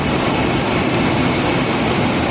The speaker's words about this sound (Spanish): Siete aviones Boeing 747 aterrizaron en la capital con todo el equipamiento de la Fórmula 1 desde Austin, Texas.